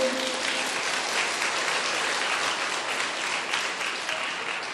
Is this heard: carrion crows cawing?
no